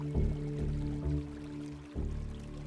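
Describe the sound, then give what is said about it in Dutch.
Water runs steadily from a bath tap into a bath, a continuous rushing with a low hollow resonance and slight surges, and no voices. “Draai de badkraan open. Laat het water stromen.”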